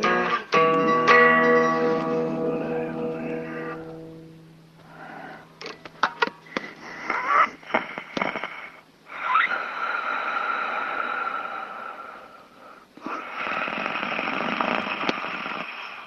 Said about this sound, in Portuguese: Pois é, ouviu seu próprio ronco pelo resto da fita, uns 40 minutos. Ele ouviu tudo até o final, vai que tinha mais algo relevante gravado.